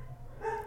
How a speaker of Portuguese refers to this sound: Minhas cachorras estão latindo. Vocês estão escutando minhas cachorras latindo? Esse latido mais grosso, é de cima da copinha.